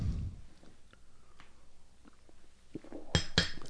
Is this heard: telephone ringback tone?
no